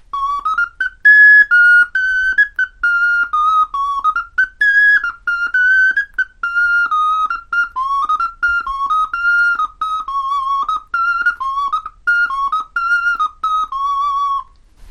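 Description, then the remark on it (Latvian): A handmade whistle is blown steadily through a wavering tune, its clear, fairly high notes stepping up and down with brief breaks, played alone and loud for about fifteen seconds. “Tas tāds viens no pirmajiem, ko es taisīju, tas ir vārjākstas vilpalnieks.”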